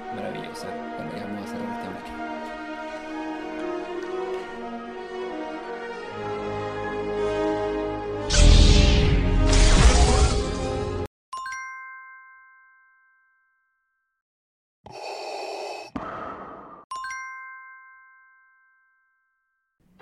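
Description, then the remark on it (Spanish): A disco-style rendition of a film theme plays loud and full for about eleven seconds, swelling into a bright burst before cutting off, followed by sparse ringing dings that fade out. “Y se sabe, vuela rey y se escucha esta tonada.”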